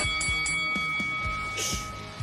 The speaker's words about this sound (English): Now go back to the corner and come out fighting at the bell.